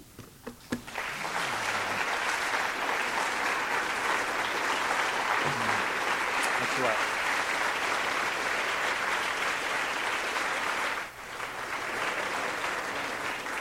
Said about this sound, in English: I was warned that if I didn't leave, you'd stand there and clap all night, so I'm going to walk off.